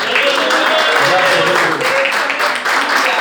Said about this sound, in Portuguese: Você pode aplaudir a Jesus nessa noite?